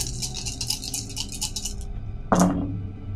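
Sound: dice being rolled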